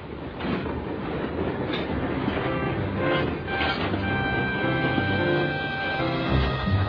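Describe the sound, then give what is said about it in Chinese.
The train engines James and Edward rumble as they pull away: a steady, dense roar with rhythmic clacking and a thin, high metallic squeal running through it. No one speaks. “像你这样的慢火车不可能拉礼物货车的。” 他们开走了。”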